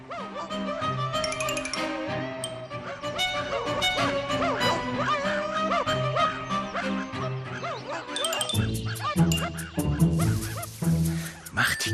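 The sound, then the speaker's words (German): A hunter's four dogs bark and yip in a busy, overlapping chorus, loud, with a dense burst of higher excited yelps near the end. “Indes kam ein Jäger mit vier Hunden daher.”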